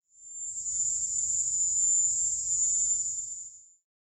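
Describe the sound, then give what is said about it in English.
A piercing, high-pitched drone resembling the cry of the Cuban cicada holds steady for about four seconds, fading in and out at the edges, with a faint low rumble beneath and no voices. “a sound that seemed suspiciously similar to the high pitched cry of the Cuban cicada”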